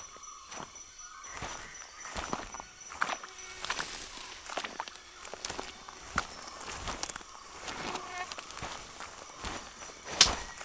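Heavy boots tread steadily over soft earth that sinks underfoot, each step a dull crunch and squelch repeating at a walking pace, with no one talking.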